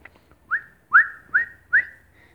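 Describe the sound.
Someone whistles four quick rising swoops, each sliding up then holding a steady tone, fairly loud, imitating jumps between planets, with no talking.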